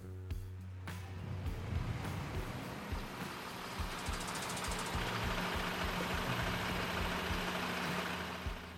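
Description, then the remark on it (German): An idling Unimog agricultural tractor engine, registered as a tractor in Switzerland, runs steadily: a low rumbling drone with a faint rhythmic knock running underneath throughout. No one speaks. “Der Agrarunimog ist in der Schweiz als Traktor eingelöst.”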